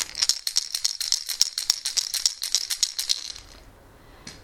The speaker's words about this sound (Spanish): son seis triángulos de madera sin barnizar. Eh, a mí me gusta mucho el tacto, es muy agradable, muy ligeras, no pesan nada. Y bueno, pues eh, aquí van los sonidos de cada triángulo, lo que contienen dentro. Este es uno.